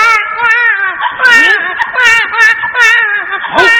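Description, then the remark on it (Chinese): A child cries loudly and steadily, a high, wavering wail that rises and falls, broken by breathy sobbing catches roughly once a second. No one talks over it. “你看那边有孩子的哭声”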